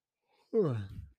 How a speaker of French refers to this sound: Excusez-moi, je baille, je suis un peu fatigué.